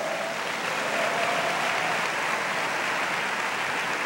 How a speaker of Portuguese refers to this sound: Quem precisa desse sol aí? Então aplauda ao Senhor bem forte.